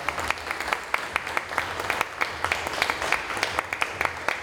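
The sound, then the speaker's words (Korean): An awards ceremony audience applauds steadily to congratulate Songpa District mayor Park Seong-su, many hands clapping in a dense, crackling patter with sharper individual claps standing out throughout, at a moderate level with no voices. “뜨거운 박수로 박선수 구청장님까지 축하합니다.”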